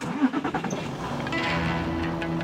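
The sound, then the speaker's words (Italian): A truck engine cranks with a few uneven sputtering bursts, then catches and settles into a steady, rumbling idle, moderately loud with no voices. “Non rimaneva che una cosa da fare: prendere quel dannato camion e andare personalmente in città a vendere i giocattoli.”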